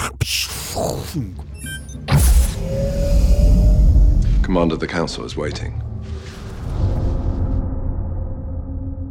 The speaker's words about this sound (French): portes de vaisseau euh, de Valérian qui, qui s'ouvrent de côté comme ça